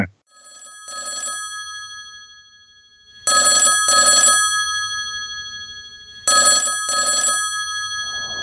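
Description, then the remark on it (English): A telephone ringback tone of an outgoing phone call rings in repeated double bursts, three pairs spaced a few seconds apart, clear and fairly loud with no talking over it. “I'm just going to give him a call. Just bear with me.”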